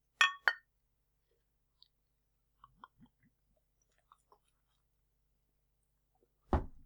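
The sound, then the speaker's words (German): Two bright glass clinks ring out close together at the start as glasses touch in a toast, followed by faint scattered taps and small sounds, then a louder thud near the end. “Und ähm, wir fangen aber wie immer mit dem Wichtigsten an. Prost. Prost.”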